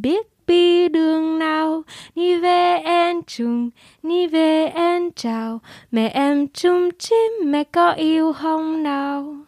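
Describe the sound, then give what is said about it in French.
A woman sings a gentle lullaby alone, clear, in smooth sustained phrases broken by brief pauses for breath, her melody rising and falling at an unhurried pace. In the lullaby's words, a woman tells her baby she loves it. “je peux vous la chanter vite”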